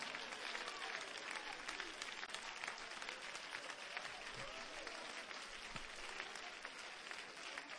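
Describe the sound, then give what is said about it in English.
An audience claps hands to Jesus in a dense, sustained burst of applause that stays loud and steady throughout, a crowd noise of many overlapping claps without clear individual rhythm. “Come on, let's clap our hands to Jesus right now.”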